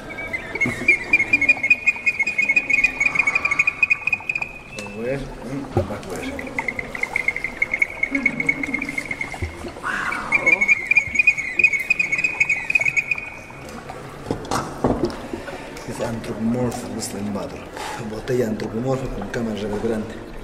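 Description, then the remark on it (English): A whistling ceramic vessel sounds three long, steady high-pitched whistles as water pours and gurgles through it, one sliding upward in pitch, with faint voices and clatter behind. “Silva como hombre silba. La mujer le contesta.”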